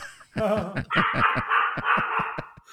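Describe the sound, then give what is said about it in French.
A guard dog barks, starting with a whiny, drawn-out yelp and then breaking into a rapid run of sharp, repeated barks that stay loud throughout, with no one talking. “c'est le chien qui a décidé que c'était terminé”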